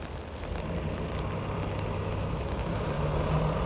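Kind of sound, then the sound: nature, rain falling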